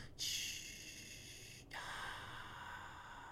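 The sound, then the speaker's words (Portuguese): A voice imitates a refreshed gasp after drinking water, like the sounds in a bottled-water commercial: a sharp breathy intake followed by a long airy exhale, fairly loud with no talking. “E a fervilhar, e com um beauty shot em câmara lenta, não é? Da, da água, toda... aqueles barulhos, não é? Que se ouve...”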